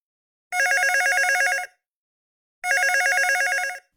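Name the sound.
telephone ringing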